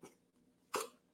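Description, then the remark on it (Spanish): A single abrupt sneeze bursts out, preceded by a brief, soft intake of breath, with no talking around it. “Salud.”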